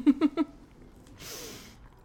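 Three quick crunchy bites in a steady rhythm, followed by a softer, longer crunching rasp as dry food is chewed. No one talks.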